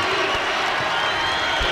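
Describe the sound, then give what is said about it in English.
A basketball crowd cheering in a steady, loud roar of many voices as the Raiders score on a hook shot to cut the deficit to three, 40 to 37, with broad noise sustained throughout and no clear individual words standing out. “And here comes the crowd.”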